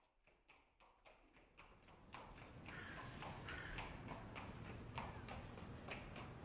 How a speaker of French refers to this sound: sur le boulevard des Capucines, deux chevaux tiraient une carriole surmontée d'une version grand format de l'affiche de Toulouse-Lautrec.